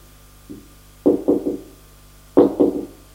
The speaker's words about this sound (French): On a frappé à la porte.